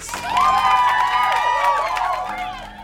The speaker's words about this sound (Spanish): el cual obtuvo una respuesta muy cálida y una gran ronda de aplausos.